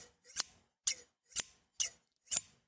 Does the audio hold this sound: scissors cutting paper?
yes